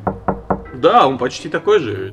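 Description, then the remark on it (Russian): Three quick, evenly spaced knocks on a new book, crisp, followed at once by a man speaking. “Вот это звук э, новой книги, да?”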